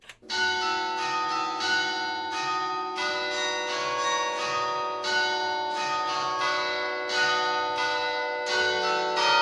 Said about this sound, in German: Es gibt wahrscheinlich keinen geeigneteren Ort für den Beginn unseres kulinarisch-kulturhistorischen Streifzugs durch die großbürgerliche Küche der Stadt Saarbrücken als das altehrwürdige Rathaus in St. Johann mit seinem Glockenspiel.